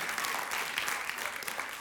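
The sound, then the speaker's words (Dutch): An audience claps steadily for the band, a dense wash of many hands with no clear individual beats, holding at an even moderate level throughout. “Dus ik wil vragen om een klein applaus voor de band dat ze willen inzetten.”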